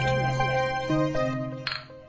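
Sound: glasses clinking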